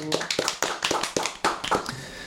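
Brief, sparse applause: a handful of crisp, uneven hand claps over about two seconds, fairly loud, with no voices.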